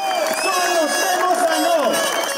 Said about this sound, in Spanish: los gritos de protesta que durante esta legislatura pasada han protagonizado los bomberos, para mejorar sus condiciones, los que cada verano apagan los incendios en los montes gallegos